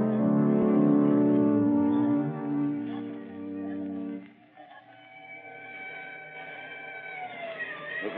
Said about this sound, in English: traffic Here comes the headquarters car.